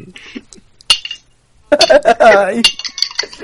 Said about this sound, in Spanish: No, he, oído un ruido como de cucharillas. Decidme que no más cucharillas